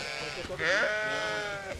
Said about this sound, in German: Wir sind jetzt etwa auf einer Höhe von um die 700 Meter und hier können jetzt die um die 600 Schafe weiden, fressen.